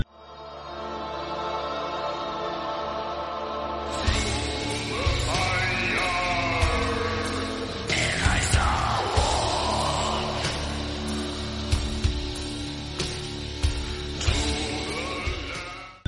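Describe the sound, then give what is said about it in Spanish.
A lo-fi suicidal black metal demo released in the early 1990s: after a few seconds of murky low drone, a harsh, distorted wall of guitar and drums crashes in, with wailing, strained tones rising over the dense noise. “Vamos a escuchar un poco para que nos vayamos familiarizando con el género.”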